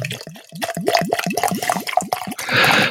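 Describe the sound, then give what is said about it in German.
Liquid glugs rapidly out of a nearly empty bottle in a steady run of about nine bubbling gulps, fairly loud, ending in a brief splashy gush. “was blubbert das so schön, der alte Hochstädter hier”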